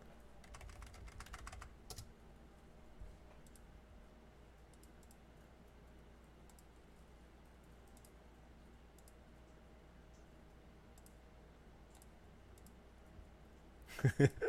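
Typing text on a computer keyboard: a quick flurry of light clicks at the start, scattered soft taps through a quiet stretch, then a louder burst of keystrokes at the end.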